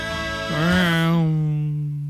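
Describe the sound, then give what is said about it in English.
A car engine revs, its pitch swooping up and then falling back into a steady, droning hum. It is fairly loud, with no voices. “That's the sound of a car.”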